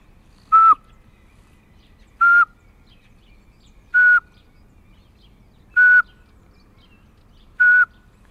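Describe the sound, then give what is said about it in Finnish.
Five short, clear whistled notes at a slow, steady pace, roughly one every two seconds, a person imitating the monotone song of a Eurasian pygmy owl by whistling through the lips. “Meidän pienin pöllö, varpuspöllö, niin se laulaa tällä tavalla.”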